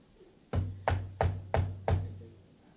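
Five firm knocks on a wooden door, evenly spaced in a steady rhythm, fairly loud, with a short resonant thud on each strike and no voices.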